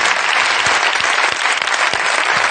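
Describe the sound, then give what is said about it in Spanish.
Steady, dense applause from an audience for a Turkish man the speaker is telling about, a continuous crackle of many hands clapping at once, loud and even throughout with no voices rising above it. “Un aplauso para el turco, por favor, sí.”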